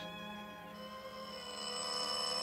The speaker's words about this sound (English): I slept so soundly, in fact, that they stood there ringing my bell for five solid minutes before they woke me up.